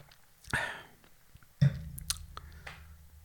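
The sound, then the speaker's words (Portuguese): Someone takes a quick sip from a glass of wine, a short slurp followed by soft mouth and swallowing sounds, small clicks, and a low steady hum underneath. “Deixa-me ver um copo de vinho, um, um golinho, pera.”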